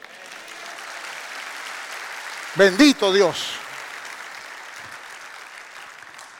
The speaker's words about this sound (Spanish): Dame un aplauso a Cristo.